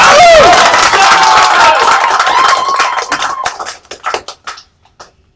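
An audience bursts into loud cheering and whooping over steady applause, then the shouts fade and the clapping thins out into a few scattered, separate claps before stopping.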